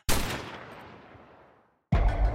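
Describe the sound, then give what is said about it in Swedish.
Two loud pistol shots, the first cracking sharply and echoing away for over a second before the second shot bursts in abruptly. No voices are present. “Hon faller livlös till marken och i nästa ögonblick så hör du pistolerna smälla av emot dig.”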